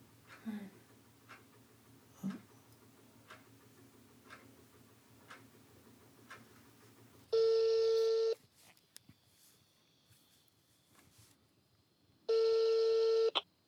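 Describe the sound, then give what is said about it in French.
A telephone call to a psychiatric hospital being dialed, with a run of soft clicks, followed by two long, loud ringing tones on the line separated by a few seconds of quiet. “Euh, je vous téléphone parce que euh, je cherche des archives d'un dossier médical euh, d'une dame qui est passée chez vous euh, à l'hôpital psychiatrique, décédée en 1993.”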